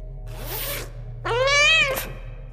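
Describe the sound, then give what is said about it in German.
A cat lets out a loud, drawn-out meow after a brief breathy rustle, sounding clear with a steady low hum underneath. “Die Geheimwaffe sind Katze?”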